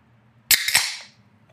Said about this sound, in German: Boah, so soll eine 05er-Dose klingen.